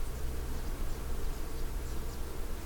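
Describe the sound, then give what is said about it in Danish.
A steady, dense hum of many bees buzzing together, continuous and fairly loud, as they feed on the furry flowers of a blossoming tree in the morning, with no voices present. “Og her om morgenen under myggen, der, der vågner man så sådan en, en, en snorende, spændstig lyd af bierne, der er i gang med at stikke deres”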